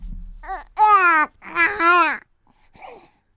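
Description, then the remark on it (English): An infant babbles in a few drawn-out, sing-song bursts with rising and falling pitch, then trails off into softer, brief vocal sounds. “This this will be a little easier baby noise.”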